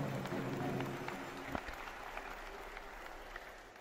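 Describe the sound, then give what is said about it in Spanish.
A crowd applauds steadily, a dense wash of many hands clapping at a moderate level, with a low murmur underneath at the start that fades as the clapping continues. “Un aplauso grande. Un aplauso grande.”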